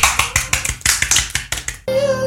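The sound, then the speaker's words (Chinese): A run of sharp, crisp hand claps from an audience of World of Warcraft players, roughly a dozen in quick succession, each loud and snappy, ending as a sustained pitched tone takes over. “鼓掌！”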